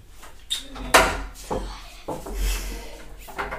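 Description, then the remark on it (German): A door opens with a sharp knock of wood as a daughter comes in through the door, followed by a series of softer thuds, rubs and shuffling bumps, with no talking. “Das war perfekt, dass es war perfekt, dass deine Tochter jetzt gerade zur Tür reingekommen ist und genau da, weil das ist das genau für mich Logistikzentrum.”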